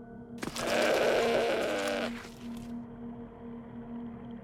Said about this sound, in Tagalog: Nakakadiring pakinggan bukod pa sa umiiyak na kambing.